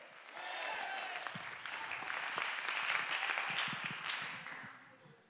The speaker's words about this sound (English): Somebody clap your hand. Everybody said change. Everybody said change.